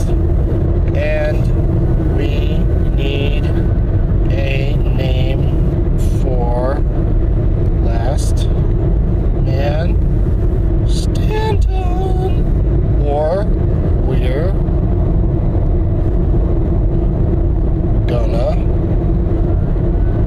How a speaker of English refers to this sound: I'm in a rental car with GF T96